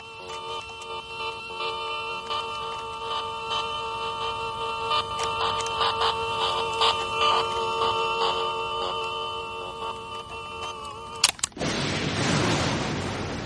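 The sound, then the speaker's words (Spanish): Sharp radio clicks and crackles, standing in for lightning on Venus in a recorded radio signal, pop irregularly over a steady humming, tonal drone, then the tone cuts off and a burst of broad hiss takes over at the end. “Nuestra señal de radio no podía transmitir el sonido real de los rayos que caían sobre Venus. Pero aquí están representados por chasquidos.”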